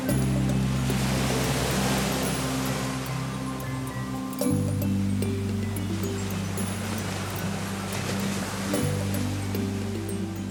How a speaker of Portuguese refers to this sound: Agora vamos virar a barriga para cima, porque vamos brincar de boiar, relaxando nosso corpo, respirando devagar e ouvindo o som do mar.